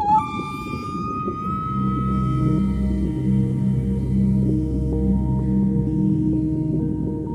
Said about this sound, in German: So klingt ein Finnwal beim ganz großen Geschäft. Da kommt nun ja eine ganze Menge Scheiße zusammen.